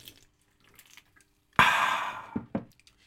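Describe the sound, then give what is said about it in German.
A freshly opened bottle of Polana Spezi soda lets out a sudden, loud fizzing hiss that fades over about a second, followed by two short, sharp clicks; no one speaks. “Hör mal, das zischt doch gleich.”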